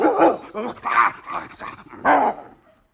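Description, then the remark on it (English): Herman, a St. Bernard dog, barks and whimpers in a string of loud, drawn-out, mid-pitched yowls, three or four bursts in quick succession before trailing off into quiet. “uh, by the way, uh, this is Herman, my St. Bernard, right here.”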